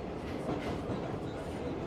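A steady, loud rumble of a metro train rolling along the rails, with a dense mechanical roar and faint rhythmic clatter throughout, continuous with no pauses.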